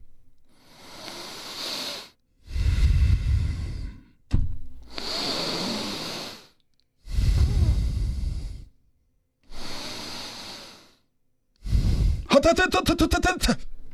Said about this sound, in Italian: contami tre respiri per cortesia.